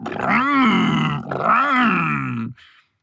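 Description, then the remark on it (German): A voice imitates a racing car engine while pretending to steer a car with arms stretched forward: two long, throaty revving bursts whose pitch rises and falls, loud and sustained, ending with a short breathy hiss. “Er streckt seine Arme nach vorn und tut so, als würde er ein Auto lenken.”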